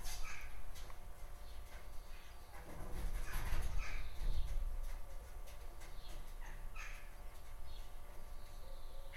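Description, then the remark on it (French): Agitated bird calls and squawks burst out repeatedly, loudest in the middle, with scuffling and fluttering noises over a steady low hum, as several birds fight on a house roof, apparently over a piece of gutter. “Je crois qu'il y a des oiseaux qui se battent sur mon toit.”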